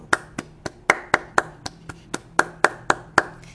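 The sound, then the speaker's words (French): A dozen sharp hand claps at a steady, fairly quick pace, each one crisp, ringing out alone with no voices, as the little prince claps his hands together in The Little Prince. “Conseilla donc le vaniteux les petites prince frappa ses mains l'un contre l'autre.”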